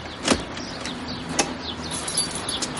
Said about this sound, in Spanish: cierra la puerta con llave y se despide.